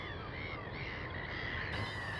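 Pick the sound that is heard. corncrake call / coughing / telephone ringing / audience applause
corncrake call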